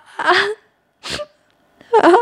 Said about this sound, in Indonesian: Jawabku dengan tangisan.